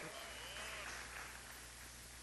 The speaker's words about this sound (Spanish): Muy bien, dense un aplauso, por favor.